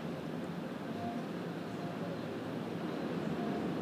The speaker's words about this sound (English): You might even be able to hear the ocean in the background. Let me pause for a sec.